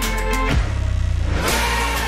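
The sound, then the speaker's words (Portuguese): A car engine revs up loudly, drops to a throbbing, pulsing idle for about a second, then roars back up again. Prominent, with no talking. “É, aquele carro ainda vai levar a gente muito longe.”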